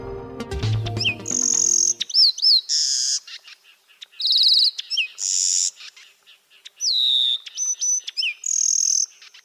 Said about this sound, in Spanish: Este es el trino del cucarachero sabanero que pese a su nombre se distribuye desde Canadá hasta Tierra del Fuego y hasta en las islas del Atlántico Sur. Mide máximo 11 centímetros. Es de color pardo con el dorso estriado y las alas barradas.